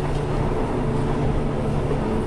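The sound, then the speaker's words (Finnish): A steady, loud low rumble of a train running at constant speed past a red signal without slowing, heard from inside a wagon, the droning hum holding even throughout without any fading, and no voices. “Juna ohitti punaisen opastimen hiljentämättä tai reagoimatta siihen muutenkaan.”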